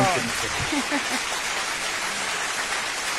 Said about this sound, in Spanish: Aplausos